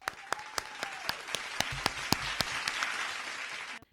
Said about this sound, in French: Donc je vous demande d'accueillir avec un tonnerre d'applaudissements nos spécialistes du sujet